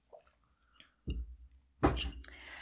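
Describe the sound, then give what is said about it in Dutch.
A sip of tea: a soft knock of the cup, then a loud, airy slurp that trails off, with no talking. “Ja, en dan eh, even een slokje van mijn thee.”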